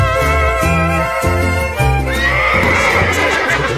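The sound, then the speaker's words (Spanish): A horse whinnies loudly, a long shrill neigh that wavers and shudders for several seconds before climbing into a higher, brighter cry, with no one speaking. “A caballo.”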